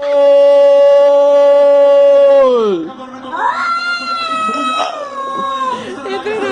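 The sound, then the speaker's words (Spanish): A person's long, sustained shout of 'gol' fades, then a cat wearing a Colombia jersey answers with loud, drawn-out wavering yowls that rise and fall, repeating the goal shout. “El dueño grita gol y el gato lo repite.”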